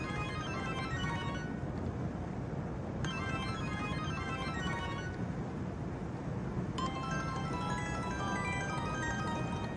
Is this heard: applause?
no